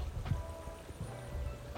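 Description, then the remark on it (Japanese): A babbling stream murmurs steadily, a soft, continuous wash of flowing water with a few faint low knocks and no voices, heard from the outdoor balcony of a house in clear air. “この真ん中のドアを開けるとお外のバルコニーになっていますよいしょちょっと隙間があって怖いんですけどおーすごい空気が澄んでるせせらぎ川のせせらぎ”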